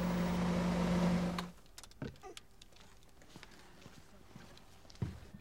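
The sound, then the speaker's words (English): A loud, steady car engine drone, as heard by the driver inside the car, with a strong low hum fills the first second and a half, then cuts off abruptly, leaving near-quiet broken by a few scattered clicks and knocks. “At MIRA, the Motor Industry Research Association, manufacturers commission experts to analyse and refine the engine vibration, tyre and wind noise, and engine noise as it's heard by the driver.”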